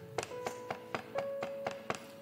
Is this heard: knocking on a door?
yes